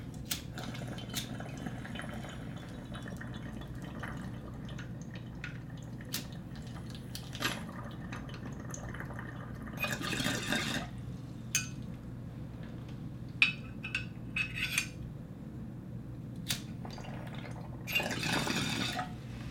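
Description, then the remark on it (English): Bong water bubbles and gurgles in two short bursts as someone rips a hit of weed, over a steady low hum, with scattered small clicks and drips in between and no talking. “Also, I have a little bit more weed than last time, so I'm gonna rip some more. Sorry, I'm trying to keep this higher pace. I gotta keep this bong a little closer.”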